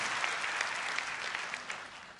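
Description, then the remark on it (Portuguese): An audience at a church service bursts into steady applause to God, a dense, continuous wash of many hands clapping at full volume, with no voices rising above it for the whole stretch. “E aplauda a Ele pela sua casa, a sua vida.”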